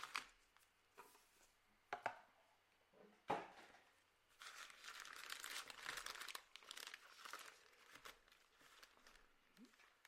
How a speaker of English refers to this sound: Try to keep the boxes away from the microphone as much as I can, but just have to go with with what we have. A lot of people like that sound though. Like they hear the sound of boxes and packs opening.